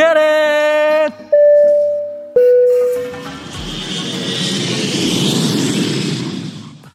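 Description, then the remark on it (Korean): A few sustained electronic chime tones give way to a loud, broad jet-engine roar that swells and holds steady, like an airplane taking off, bound for Atlanta, USA. “자 그럼 우리 비행기 이륙합니다.”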